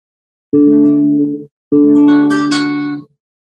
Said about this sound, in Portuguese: eu vou tocar no violão trechinho, que dá o nome ao show, a música.